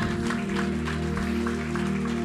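A church audience applauds steadily during a sermon, a dense crackle of many hands clapping without pause, with a sustained low hum, like a held keyboard chord, running beneath. No one speaks.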